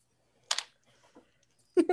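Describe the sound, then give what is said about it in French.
Dice clatter across a hard tabletop in a quick burst of sharp clicks, then go quiet before a second rattling tumble near the end. The sounds are fairly loud, with no talking. “Je vais rouler ailleurs sur la table, peut-être.”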